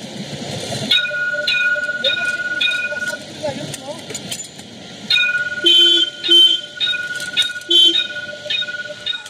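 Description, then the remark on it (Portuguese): A light rail tram's warning bell rings in bright, sustained bursts over the rumble and screech of rail wheels as the car passes. Indistinct voices can be heard faintly in the background. “É tipo uma campainha, né? Um trim-trim que vocês podem ouvir.”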